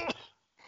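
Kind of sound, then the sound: human body sound, sneeze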